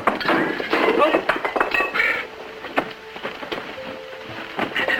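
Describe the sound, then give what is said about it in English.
Equipment knocked over by Alexander Graham Bell while building his telephone prototype clatters over and breaks, a dense burst of thuds and crashes followed by scattered clinks and ringing metallic tones as pieces settle over a few seconds. “While building the prototype, Bell knocked over some equipment and called for his assistant, Thomas Watson.”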